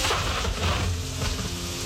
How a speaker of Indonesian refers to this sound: Oh hujan Oh hujan. ini kayaknya ini kayaknya talang airnya somplak nih.